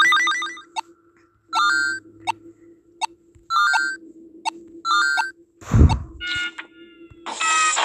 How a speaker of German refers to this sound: Er ist noch bei uns, der Alarm.